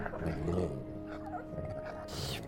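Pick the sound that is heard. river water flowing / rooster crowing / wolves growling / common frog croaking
wolves growling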